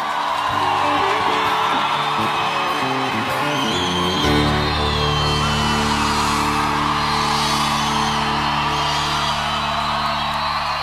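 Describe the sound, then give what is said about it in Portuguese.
A crowd applauding and cheering steadily during the Nova Esperança radio program, with whoops and yells rising over a dense wash of clapping, while sustained musical tones hold underneath throughout. “Aplausos”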